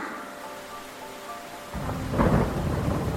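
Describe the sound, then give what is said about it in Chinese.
Steady heavy rain of the rainy season hisses throughout, washing over villages on the grassland, then a deep rumble of thunder rolls in about halfway and swells louder before holding under the downpour. No voices. “这是一个雨季，一道道雨帘冲刷着草原上的村落。”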